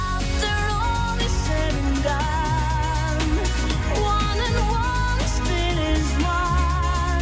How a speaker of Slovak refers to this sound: táto pieseň je pôvodne z repertoáru polskej speváčky … a znie takto